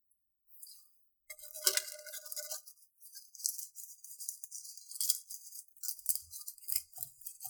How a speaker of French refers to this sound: Ça, c'est le craquement de feuilles que je vous ai ramené d'avant.